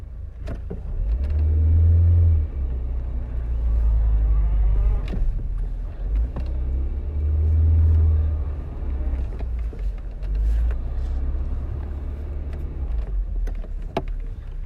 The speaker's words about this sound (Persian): داریم میرسیم چرا انقدر شلوغه چه خبره یه جا پارک پیدا کن آه همینجا خوبه ببینم بلدی پارک کنی یا نه